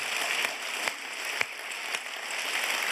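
A round of applause from a group, a dense, steady patter of many hands clapping at once, with a few sharper claps standing out. No one speaks over it.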